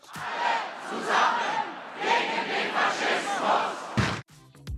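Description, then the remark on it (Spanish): A large protest crowd in Germany, part of more than 300,000 people protesting against the AfD, chants "all together against fascism" in unison, rhythmic bursts of many voices rising and falling loudly for about four seconds before cutting off abruptly. “Con gritos como todos juntos contra el fascismo, más de 300.000 alemanes han protestado contra la reunión secreta de militantes de AFD con neonazis y el plan de este partido de expulsar masivamente del país a millones de inmigrantes.”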